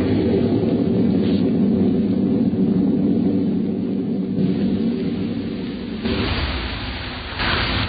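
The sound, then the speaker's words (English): A loud, deep rolling rumble of thunder that sustains for several seconds, swelling and brightening briefly near the end, with no voices present. “Through the thunder crash, I heard her.”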